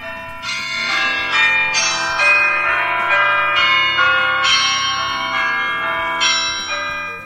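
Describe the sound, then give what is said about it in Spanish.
An iPhone's bells (Campanas) ringtone of chiming bells plays a quick, bright melody of overlapping tones, repeating several times, loud with no talking over it. “Campanas. Uy. Seleccionado. Campanas.”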